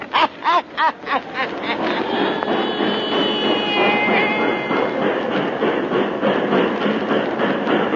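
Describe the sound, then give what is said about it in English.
A train at a little railway depot in Louisiana, starting with a few loud rhythmic chuffs that blur into a steady, dense rumble and hiss, with a brief high squeal of brakes or a whistle midway. No one speaks. “We're strangers here. Just got off that train.”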